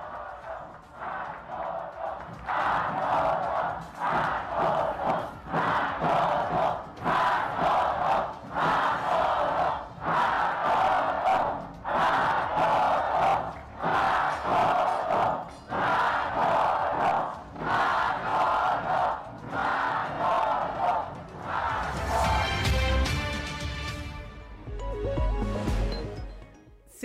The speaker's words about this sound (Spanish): La misma gente está, está coreando el nombre del secretario de Desarrollo Social.